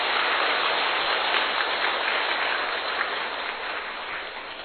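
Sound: warm applause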